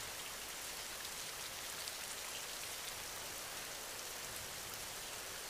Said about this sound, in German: Tropfen für Tropfen entsteht das angenehme Rauschen des Regens.